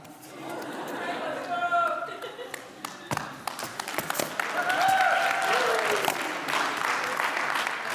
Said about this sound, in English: I love this. I've been wanting to do this all week long. He just treads, that's more stomping, but you get the point.